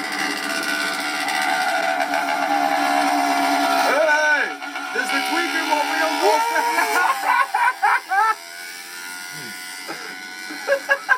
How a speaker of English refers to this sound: Homemade bike with the lawnmower engine.